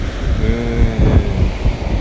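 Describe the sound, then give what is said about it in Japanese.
Ocean waves wash onto the shore in a steady, low rumbling roar, fairly loud, mixed with gusty wind buffeting the microphone. “まあこうやって今海に来てまあ僕のねいろはにハノンというのはもともとね波の音から来てまして”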